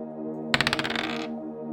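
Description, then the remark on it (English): Dice rolled to answer a question in a tabletop story game clatter across a hard surface in a quick run of about ten small clicks that speed up and fade out, landing on a four, heard over a steady low musical drone. “A story where the roll of the bones determines all.”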